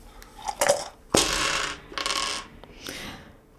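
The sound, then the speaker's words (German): Dice rattle and clatter across a hard surface in a few quick bursts as they are rolled in a game of Kniffel, with a sharp impact followed by rolling clicks, fairly loud, with no talking. “Oder willst du mal würfeln?”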